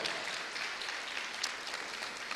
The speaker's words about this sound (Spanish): Usted le da palmas al Rey con fuerza, con fuerza al Señor.